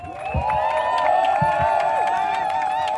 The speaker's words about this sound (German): Großen Applaus für unsere Moderatorin.